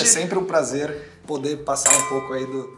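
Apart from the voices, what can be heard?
wine glasses clinking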